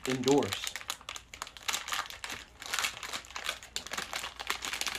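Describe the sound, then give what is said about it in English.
A Fit Crunch protein bar wrapper is torn open, with several seconds of steady, crisp plastic crinkling and crackling, fairly quiet, after a brief vocal sound at the very start. “Busting open the Fit Crunch now.”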